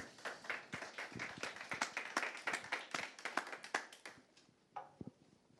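A small audience claps for several seconds, a dense patter of hand claps that thins out toward the end, leaving a few scattered final claps.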